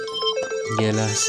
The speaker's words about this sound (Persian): خب من گوشیم زنگ زد پوزش میخوام